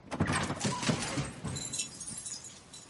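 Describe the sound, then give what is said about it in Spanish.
A car door in a tunnel, after a crash, is opened by Born holding a pistol, with a series of metallic clicks and rattles from the handle and latch, followed by a softer, fading metallic ring. “Born coge la pistola y abre la puerta del coche.”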